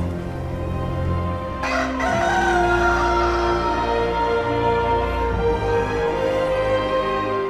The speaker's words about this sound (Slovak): Kohút opäť zaspieval. Učeník to počul a pripomenul si Ježišove slová.